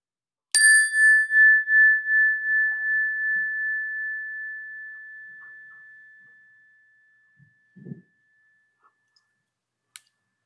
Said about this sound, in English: I'm ready for the chime.